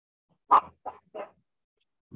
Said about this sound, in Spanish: Necesito que hay un perrito acá que está fastidiando.